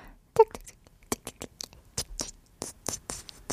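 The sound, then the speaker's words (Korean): A voice mimics a mouse: a quick high squeak, then a run of short, irregular scratchy clicks and rasping bursts, moderately loud, with no ordinary speech. “이렇게 된 김에 쥐소리 함 내주세요.”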